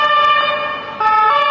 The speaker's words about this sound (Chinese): 现在有警车通过。